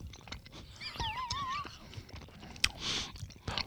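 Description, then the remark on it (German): Chewing of a sticky dango rice dumpling, with soft wet clicks and smacks over a few seconds, and a brief wavering, high-pitched vocal hum partway through. “Steckt man sich so ein ganzes Ding in den Mund? Wie du magst, du kannst auch abbeißen.”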